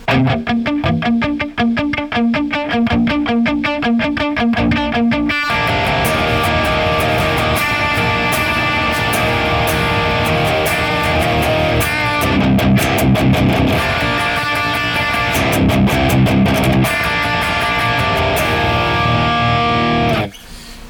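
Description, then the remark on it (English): Heavy distorted electric guitar, run through a Boss IR-200 with a Mick Buzz Nectar Giant (Mesa oversized cabinet) impulse response in stereo, plays alone, starting with choppy palm-muted riffing, then ringing out into a loud, dense wall of sustained chords and chugging rhythm for about twenty seconds. “All right, and uh, our first stereo pair is going to be the Boss IR200 which sounds like this.”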